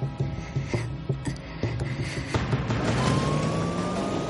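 Steady engine hum inside a moving car, with a run of soft rhythmic thumps and rattles at first, then a smoother drone as a thin, rising whine creeps in near the end.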